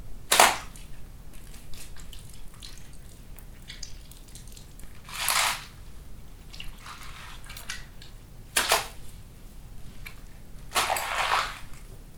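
Four wet, squelchy foley slicing sounds made with a chamois and a grapefruit for a gross sword-slice effect, each a short smeared burst with a juicy tail, spaced a few seconds apart over a quiet background, with no talking.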